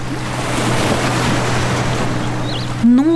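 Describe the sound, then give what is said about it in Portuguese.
Steady sea wash fills the whole stretch, a broad rushing surf with a low hum underneath, ending with a brief rising tonal swell near the close. “Até que seu corpo bateu no mar. E ele foi afundando, afundando e desapareceu para sempre.”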